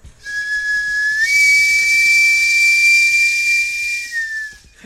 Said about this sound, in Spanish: Lo bueno es que es cortito. Es el sonido del carro de camotes, que es eh, consta de dos chiflidos al mismo tiempo, lo cual lo emparenta con el canto armónico tibetano.